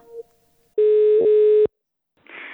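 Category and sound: signal or alarm, telephone call ringing tone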